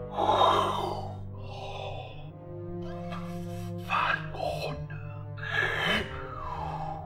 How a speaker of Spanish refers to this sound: Una respiración, pero es como si la madera respirara, como si las piedras respiraran, como si el piso respirara. No es la criatura, es lo que la rodea lo que respira.